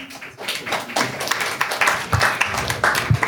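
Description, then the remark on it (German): Audience applause: a steady wash of many hands clapping at once, dense and uneven with a few sharper claps poking out, holding at moderate loudness throughout with no voices. “der Applaus wurde nachgereicht.”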